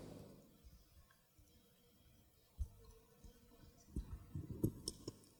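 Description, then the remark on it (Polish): Quiet plastic handling noises with a few sharp clicks and taps, one near the middle and a small cluster toward the end, as two ballpoint pens are fitted and clipped together. “Jeżeli ja teraz wezmę dwa długopisy, czyli do tego długopisu dołączę drugi, zepnę je z sobą razem.”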